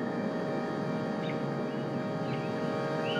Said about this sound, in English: the coquís, of course, and the crickets, and the dogs. These sounds had permeated the lunar landscape in such a subtle way